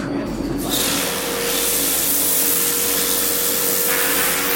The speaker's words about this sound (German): Aber beeindruckend tatsächlich, wie schnell sowas geht, wie schnell so ein Graffiti abgeht. Ne? Ja, und es wird wirklich regelrecht abgespült. Tatsächlich. Und es verläuft und läuft runter.